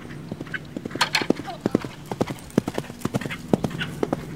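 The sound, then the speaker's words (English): A horse gallops down a jousting track at a Maryland State Jousting Tournament Association event at Jerusalem Mill Village Park, Maryland, on a hot day over 90 degrees, its hooves pounding the ground in a fast, steady drumming rhythm of sharp thuds, clear throughout. “Uh, you guys ready to take a hike and figure out where the horses are?”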